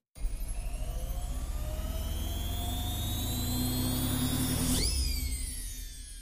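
A washing machine drum in a basement spins with a steady mechanical whir and rising whine at full spin. Near the end the pitch sweeps downward as the drum slows and comes to a stop. Loud.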